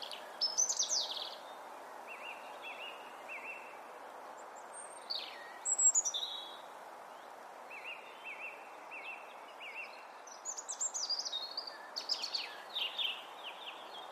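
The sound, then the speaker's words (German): A European robin sings a series of thin, high, warbling phrases separated by short pauses over a steady background hiss, with no voices. “Das sagt mir auch das Rotkehlchen hier.”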